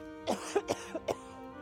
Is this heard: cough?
yes